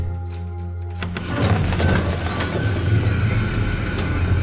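A clinking jangle of keys with several sharp metallic clicks, like a key turning in a lock as the third door is opened, over a steady low background hum. Nobody speaks.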